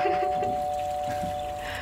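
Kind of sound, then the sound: household object, doorbell ringing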